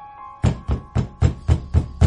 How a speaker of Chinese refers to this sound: 这敲门声急促而显得沉闷。